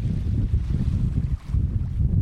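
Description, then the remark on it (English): Strong gusting wind roars and buffets over the rough, churning water of the Sound at Martha's Vineyard, whipping it into whitecaps on a cold, sunny day; a steady low rush that briefly eases before surging back. No voices, just loud outdoor wind and sea. “The wind puts on a show the day I visit Martha's Vineyard, with gusts whipping the Sound's waters into whitecaps.”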